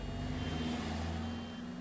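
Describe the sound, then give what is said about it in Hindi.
A heavy truck engine rumbles steadily amid heavy city traffic during a taxi ride to an office, with a high reversing beep sounding over the low drone throughout the short stretch; nobody speaks. “office तक पहुंचने के लिए टैक्सी पकड़ी इतना ट्रैफिक लग रहा था जैसे पूरा शहर मेरी कलम को बिकने से बचाने की कोशिश कर रहा है”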